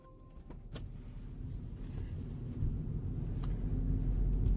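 Inside a car, a click followed by the steady whirring drone of a power window motor that grows slightly louder over several seconds, continuous, with no voices.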